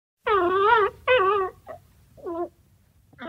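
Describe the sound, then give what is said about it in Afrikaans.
A small, neglected-looking puppy on the other side of the wire fence around a school whimpers in a few high, wavering cries: two long whines close together, then shorter, fainter ones trailing off, with no other sounds around. “Sy kyk rond en toe sien sy 'n klein hondjie aan die ander kant van die draad wat om die skool gespan is.”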